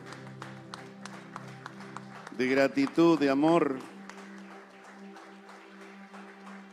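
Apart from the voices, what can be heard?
audience applauding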